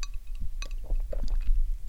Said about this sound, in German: Ah, vielleicht hört man es ja. Also nicht wundern, das sind wirklich bloß die Eiswürfel, die da im Gläschen rumklappern.